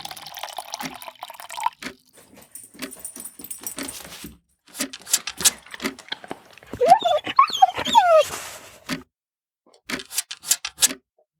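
A dog whimpers with high, wavering whines between bursts of quick, wet panting and sniffing, with some splashing or lapping sounds and brief background voice.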